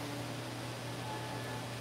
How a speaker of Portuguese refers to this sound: Esse chiado que tem aqui é do meu notebook.